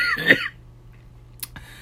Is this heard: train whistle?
no